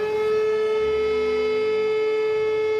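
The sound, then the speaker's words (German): A siren alarming the Deisfeld volunteer fire brigade, in the village of Deisfeld in the municipality of Diemelsee, wails in a steady, sustained tone with rich harmonics, loud and unbroken throughout, with no voices. “Dass die Freiwillige Feuerwehr Deisfeld alarmiert wird, ist glücklicherweise eher selten”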